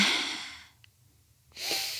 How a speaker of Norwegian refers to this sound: Må bare ta et lite pust.